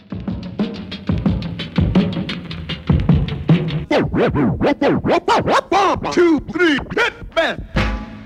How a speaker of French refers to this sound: Si la main du DJ ralentit la vitesse à laquelle le disque doit tourner normalement, le son descend dans les graves.